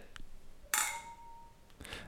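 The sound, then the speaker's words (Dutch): Glasses of HEMA children's champagne clink together in a toast: one bright, sharp chime that rings on with a clear high tone for about a second before fading, followed by a softer second touch. “Om te klinken...”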